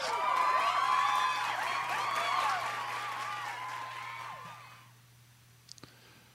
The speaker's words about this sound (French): Ouais. J'attendais ton bruit de foule.